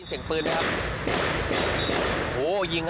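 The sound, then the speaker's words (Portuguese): A series of gunshots rings out outside a shopping mall in Thailand during a shooting by a soldier, several heavy, echoing bangs spaced about half a second apart, with distressed voices crying out in the background. “Em um dos vídeos gravados do lado de fora do shopping, é possível ouvir a sequência de tiros.”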